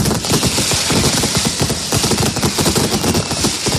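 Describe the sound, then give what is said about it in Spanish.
A dense, relentless barrage of mascletà firecracker detonations, about 3,000 in all, on the banks of the Manzanares in Madrid, crackles and thunders nonstop, the rapid blasts blurring into one loud, roaring roll with no pauses and no voices. “que las tres banderas, la de España, la de, Madrid y la de la, de la, comunidad valenciana, estén unidas en un solo disparo de una mascleta que desde luego es histórica para nosotros.”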